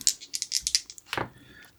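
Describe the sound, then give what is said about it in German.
Two ten-sided dice rattle in a quick burst of sharp clicks, then land with a brief clatter and settle, rolled during a board game for a magic treasure and landing on two sixes. No one speaks. “Okay, ich würfel mal.”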